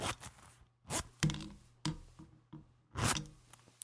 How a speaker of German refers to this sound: Es sollte ein Reißverschluss sein, den ich hier auf und zu gemacht habe.